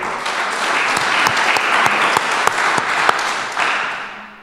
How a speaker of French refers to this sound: Alors, on accueille avec nous Pierre Leroy, Pierre Leroy, cofondateur de Hiro et président de l'association French PropTech France. Applaudissements pour Pierre Leroy.